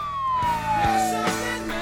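A police siren wails loudly, its tone sliding steadily downward over about two seconds, with rumbling traffic-like bursts beneath it and no voices.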